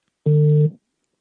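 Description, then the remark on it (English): A single short burst of a phone call's ringing tone, heard while calling a CEO live on a show, a steady electronic hum of two blended pitches lasting about half a second, loud and clear with no talking. “And hey, it's ringing. It's ringing.”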